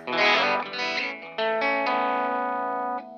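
A distorted 1961 Epiphone Olympic Special electric guitar played through effects rings out a few loud, sustained chords in quick succession, the last one held and ringing before it cuts off. No one speaks.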